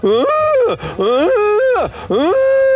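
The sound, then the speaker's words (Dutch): A person loudly imitates a cow in heat bellowing, three long drawn-out moos with rising and falling pitch and short breaths between them, strained. “Nou, als ik een hele vervelende koe heb die graag de eh, hormonen eh, op, kwispelen en die zeggen van, nou ik wil, ik zoek toch echt een vriend.”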